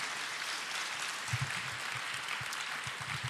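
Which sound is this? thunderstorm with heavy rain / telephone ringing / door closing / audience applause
audience applause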